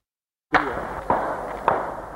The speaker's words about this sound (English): Gunfire rings out at a tourist site in Tasmania. The indiscriminate murder of 35 people by one man carrying an AR 15 semi automatic rifle would become the worst mass shooting in Australian history it left a nation in shock.